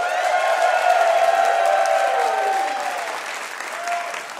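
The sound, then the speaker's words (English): An audience breaks into sustained, loud applause for the students at the Brooklyn Guitar School, a dense wash of clapping with some cheering tones mixed in, holding steady before tapering slightly toward the end. “Before we find out who won the game, let's hear it for the students at the Brooklyn Guitar School.”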